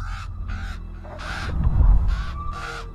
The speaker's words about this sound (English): as you get closer, perched on a wooden beam above the door is a raven. And it hops about and uh, squawks at you, seemingly agitated.